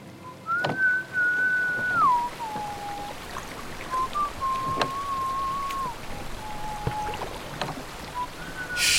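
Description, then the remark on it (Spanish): A person on a boat whistles a slow, wavering tune of long sustained notes that slide between pitches, heard over steady rain pattering on water with occasional sharp drips or knocks. “Si pueden sentir las vibraciones de mi silbido, seguro pueden sentir las del bote.”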